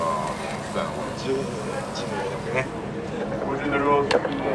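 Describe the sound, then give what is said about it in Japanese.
Meat sizzling on a yakiniku grill, a steady hiss dotted with small crackles and pops, with faint voices murmuring underneath throughout. “ええ音してますよこれえ音してるほらほら聞いてくださいねこれ煙入れてほら煙入れてる”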